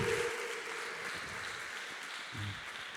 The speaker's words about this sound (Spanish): Gracias, Señor. Un aplauso para el Señor, por favor.